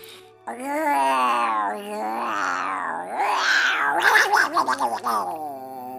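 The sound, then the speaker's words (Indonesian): A storyteller's voice mimics an angry cat with the mouth, a drawn-out wavering yowl with harsh, growling edges that rises into rough hisses and sputters near the end, fairly loud. “Jadi saya ini ketika mendongeng, saya berlatih terus bagaimana uh, saya bisa uh, menyuarakan berbagai suara seperti meow meow Itu kucing manja. Kalau marah”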